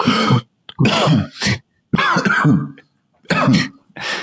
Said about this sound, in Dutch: Dus eh, gewoon echt dat je bijna het gevoel hebt, ik kan niet meer hoesten, maar als ik nog één keer hoest, dan is het verschil tussen kotsen en hoesten heel.